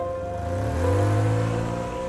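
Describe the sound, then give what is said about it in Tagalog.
An old black sedan's engine revs up as it sets off at 9 pm from a house in Manila toward Tayabas, Quezon, its low harmonic drone rising in pitch before settling, loud, with no one speaking. “Gamit ang itim niyang lumang sedan ay bumiyahe ako papuntang Tayabas, Quezon.”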